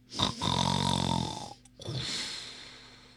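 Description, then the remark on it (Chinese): A hippo asleep on a bridge snores heavily and deeply: a loud rumbling inhale lasting about a second, a brief pause, then a softer, breathy exhale trailing off. No one speaks. “打他的呼噜。”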